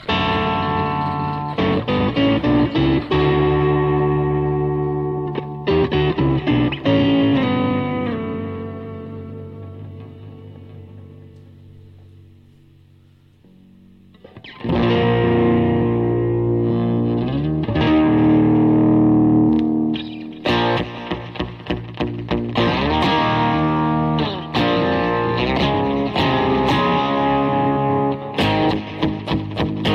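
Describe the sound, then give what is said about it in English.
An electric guitar runs through distorted effects pedals, ringing out heavy chords that fade into a long sustain, then returns with choppy, stuttering strums and bursts of gritty noise. No one speaks. “Now another pedal doesn't work.”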